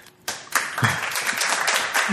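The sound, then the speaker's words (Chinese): A burst of applause starts abruptly after a brief quiet moment, a dense crackle of many hands clapping at once that stays steady and fairly loud for about two seconds. “我们今天的主题叫做“峰回路转换行来 此处应有掌声吗？”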